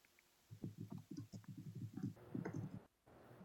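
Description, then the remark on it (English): A clothes dryer tumbles in the same room, its low rumbling thumps and clatter repeating in a steady, uneven rhythm, with no one speaking. “And um, apologetic for the background noise because there's a dryer in the same room.”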